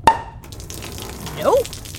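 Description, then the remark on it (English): Water trickles into a leaking, slowly sinking craft in the middle of the Pacific Ocean after a water landing: a sharp, ringing drip lands first, followed by a quiet watery hiss and then a short bubbling gurgle about a second later. “We're in the middle of the Pacific Ocean in a slowly sinking wow machine.”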